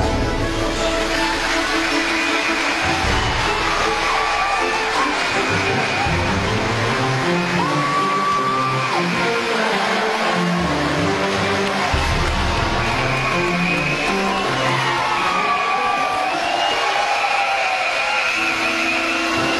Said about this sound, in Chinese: 掌声有请我们今天的演讲嘉宾董明珠女士。